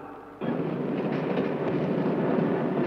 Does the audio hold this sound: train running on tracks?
yes